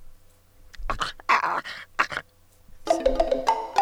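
A small dog growls in short, rough bursts, then breaks into a series of high, thin whimpers near the end, fairly loud with no one talking.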